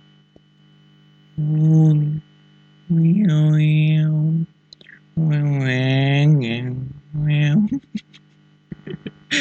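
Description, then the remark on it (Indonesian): A voice imitates a whining mosquito blended with a revving motorbike in four sustained buzzing bursts, pitch sliding up and down, fairly loud, followed by brief laughter. “tebak suara apa itu tebak suara apa ya pasti pusing kan pusing kan jadi itu adalah perpaduan dari suara nyamuk dan motor”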